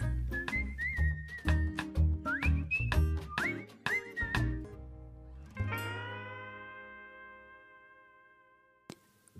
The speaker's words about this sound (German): der ja auch den Jingle singt, den Sie gerade im Hintergrund hören.